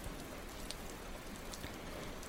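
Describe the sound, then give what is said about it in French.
Steady rain falls continuously, a dense, even hiss of drops with occasional sharper patters on a surface, with no voices present. “Les pieds trempés, nous avançons en floc-floc continu et s'agache le peu de vie qui nous reste, la pluie.”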